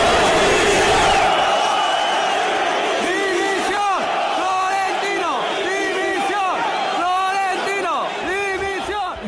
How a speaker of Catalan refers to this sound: Així que, mentrestant, sembla que els crits no canviaran al Bernabéu.